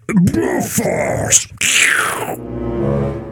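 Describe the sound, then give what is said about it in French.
A voice attempts an eagle's cry with strained, gurgling screeches and groans, loud, cut short and followed by a steady sustained hum that runs to the end. “Je fais le bruit de l'aigle.”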